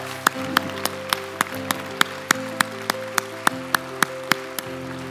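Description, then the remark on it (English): An audience claps in unison to a steady, quick beat, about three sharp claps per second, over a low sustained musical drone. No one speaks. “So we can clap. Come on, come on, come on.”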